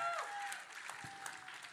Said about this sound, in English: Guys, let me tell you, uh, it, it, yeah, I mean, come on, give yourselves a round of applause for real though.